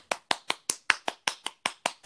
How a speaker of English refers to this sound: Thank you for the warm round of applause. I feel so welcomed. Yeah, I'm sure everyone in their cars or wherever are also clapping.